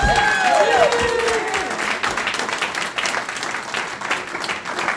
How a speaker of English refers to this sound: Let's give her parents a round of applause.